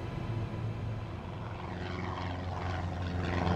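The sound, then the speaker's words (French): Three twin-engine Cessna Skymaster propeller planes fly in formation southward toward Cuba, between Florida and Cuba, in February 1996. They drone overhead with a steady, throbbing engine hum, loud and continuous, the pitch of the rumble shifting slightly as they pass, with no voices. “Trois avions Cessna Skymaster bimoteur volent en formation en direction du sud vers l'île de Cuba.”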